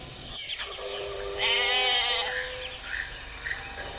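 A goat bleats in a long, wavering cry that rises and trembles, with a faint background hum and no talking.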